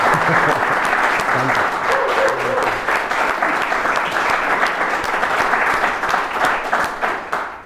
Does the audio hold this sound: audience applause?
yes